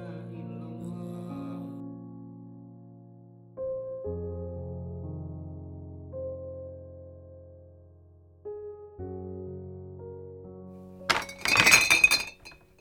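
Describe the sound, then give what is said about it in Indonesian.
Soft sustained musical chords play for several seconds, then a glass bottle, the fifth one, suddenly breaks with a loud, bright crash and scattering shards near the end. “Aduh, si sialan. Udah botol kelima loh ini.”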